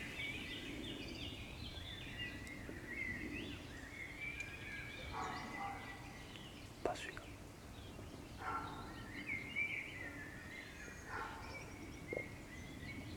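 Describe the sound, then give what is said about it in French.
A roe deer gives a few short, hoarse barks, faint against steady birdsong and outdoor background noise, with a sharp click partway through and a person speaking briefly. “C'était un chevreuil.”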